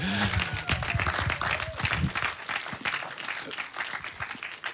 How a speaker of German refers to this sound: Wenn seine E-Mail rumgeht für Umzugshelfer, ja, gib ruhig dem Tom mal einen ganz lieben Applaus.